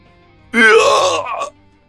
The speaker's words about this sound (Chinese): 然而惨叫声。从这边来，却从另一边去，便听见…的惨嚎声。我似乎已经想象到了那幅凄惨的画面。…的声音只持续了两秒钟。